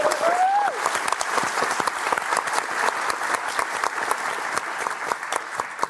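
An audience claps steadily and loudly for the whole stretch, a dense patter of many hands with no talking, and a brief rising whistle or whoop cuts through at the very start.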